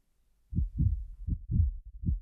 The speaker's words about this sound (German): bei einer Vorsorgeuntersuchung, bei der ihr der Arzt mit einem kalten Stethoskop den Brustkorb abtastet, ihr eigenes Herz schlagen.